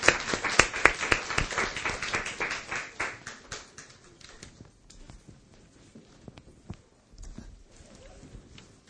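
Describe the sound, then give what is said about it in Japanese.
A church audience applauds to welcome a person who is about to be baptized and will give a testimony. Dense, crackling claps start strong and gradually thin out into scattered, softer claps before a brief final flurry; no one speaks. “はいそれではどうぞ皆さん拍手を持って”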